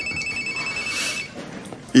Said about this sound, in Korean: 아, 웬 전화가. 오빠도 있어. 어, 이 청와대 비서실에서 온 거네.